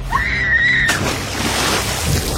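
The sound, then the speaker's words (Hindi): A girl's shrill, sustained scream breaks off suddenly into a loud splash as she is dragged into a river by a large stone chained to her foot, followed by rushing and churning water that carries on to the end. “जोर के झटके और चीख के साथ वो लड़की नदी में समा गई”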